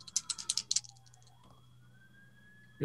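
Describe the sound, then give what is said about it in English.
A game's electronic alarm tune, not the dice alarm, playing the tune from Space 1999: a quick run of rattling, clicky bursts, then a single whistling tone that dips, then climbs slowly and holds until a sudden thump at the end. No talking. “said a game alarm, but not the dice alarm.”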